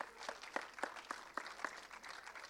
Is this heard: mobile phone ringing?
no